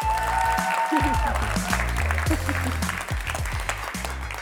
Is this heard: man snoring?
no